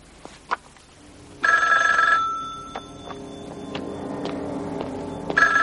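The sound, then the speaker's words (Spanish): A telephone rings in an apartment in two bursts, a sustained shrill ring followed after a pause by the start of another, over a low steady hum with a few faint clicks. “Está a punto de telefonear a Wendy para darle la noticia.”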